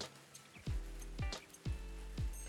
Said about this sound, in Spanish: Ahora sí se está escuchando un poquito las gotas, público. Usted disculpe, pero estamos eh, en un lugar donde tenemos la cava. Y se escucha un poquito ahí. Estamos a la intemperie. Ah, se escucha un poquito ahí la lluvia